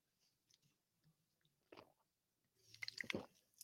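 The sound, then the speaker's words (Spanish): Someone drinks water: faint wet sips and mouth clicks at first, then a louder cluster of slurping and swallowing near the end, with no talking. “Déjeme tomar tanta agua porque hablo demasiado.”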